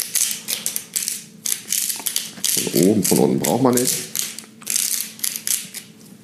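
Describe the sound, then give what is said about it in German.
A salt mill being twisted in rapid bursts to grind sea salt over organic chicken wings being marinated with olive oil, giving loud, dry, ratcheting crunches that start and stop repeatedly, with a man speaking briefly in the middle. “So, jetzt das Ganze ein wenig salzen. Schönes Meersalz.”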